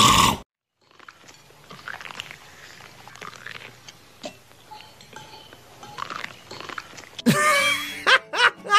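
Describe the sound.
A voice imitates loud, wet crunchy chewing of corn on the cob, like a dad eating corn in a film: a run of irregular munching and smacking sounds, ending in a burst of exaggerated slurping and moaning gulps.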